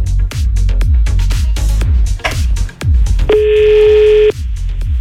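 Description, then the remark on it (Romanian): A loud, steady electronic fax tone comes through a phone line for about a second, cutting in over a rhythmic, thumping background of low beats. “Ai intrat fax.”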